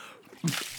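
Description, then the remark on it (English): A short splash of Coca-Cola being poured, starting abruptly with a brief slosh and then a bright, hissing fizz that carries on steadily, moderately loud. “Pour Coca Cola all around the inner rim of your oh, toilet.”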